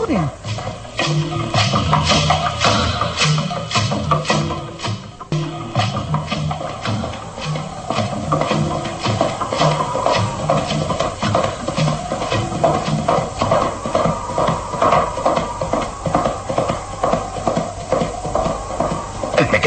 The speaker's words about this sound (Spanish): Alguien se acerca. Escucho el galope de un caballo. Ahí viene.